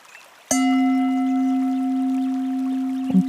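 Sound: gong struck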